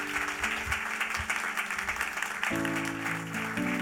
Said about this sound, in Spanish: Démosle un aplauso a la parejita.